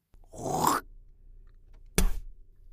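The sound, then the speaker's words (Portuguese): A person hawks up phlegm with a harsh, gurgling throat rasp lasting about half a second, then after a pause gives one sharp spit. No one speaks. “Estes badamecos vão ao pulmão da terra.”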